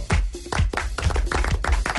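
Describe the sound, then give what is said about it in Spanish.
A small group applauds in a studio, a quick dense patter of many hands clapping at once for a couple of seconds, fairly loud, with no voices. “Eh, pues me aplaudieron bien.”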